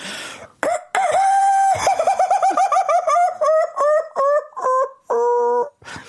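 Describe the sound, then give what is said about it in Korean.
A man's voice imitates a rooster crowing in a long, warbling cry, then breaks into a rapid series of rhythmic, laugh-like hoots that stay in the crowing tone, loud; an imitation of a rooster that laughs while crowing. “… 형이 지금 친한데 그 형이 나서 나와서 이제 그 닭 울음소리를 흉내냈어요.”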